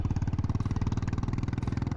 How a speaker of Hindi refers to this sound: मुझे चलते हुए पंद्रह मिनट से ऊपर हो चुका था पर अब भी सौ मीटर की दूरी बाकी थी तभी मैंने बुलेट मोटरसाइकिल की आवाज़ सुनी